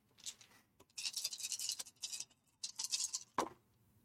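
A handful of dice rattles and clatters in several bursts of shaking and tumbling, ending with a sharp clack as they land; no one speaks.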